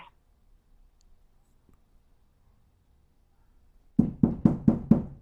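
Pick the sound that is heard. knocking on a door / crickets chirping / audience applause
knocking on a door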